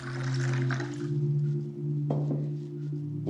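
Water pours steadily into a container, a continuous splashing hiss with a hollow tone that rises slightly as it fills, fairly loud with no voices.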